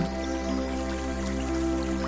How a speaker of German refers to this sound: Du bist neugierig und bewegst dich in Richtung dieses Rauschens. Und während es immer deutlicher zu hören ist, siehst du auf einmal einen kleinen, aber kräftigen Bach. Das Wasser des Bachs ist kristallklar